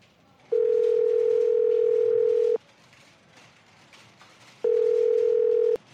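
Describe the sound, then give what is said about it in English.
A telephone line tone sounds twice, a steady, loud electronic hum lasting about two seconds, then a pause before a shorter repeat, with only faint background hiss between and no voices. “Yes, Agent Jocko. I was expecting your call.”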